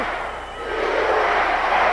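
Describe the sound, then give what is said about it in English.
A crowd of about 9,000 at a wrestling event chants "USA" in support of Hacksaw Jim Duggan, a loud, dense roar of many voices, dipping briefly before swelling again and holding steady for about two seconds. “And listen USA! to this crowd of 9,000 strong as they chant USA, USA, showing their total 110% support of Hacksaw Duggan.”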